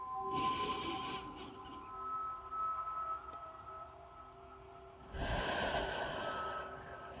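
A slow, deep breath drawn in, then after a quiet pause another long airy breath, both clear over a soft, steady humming drone.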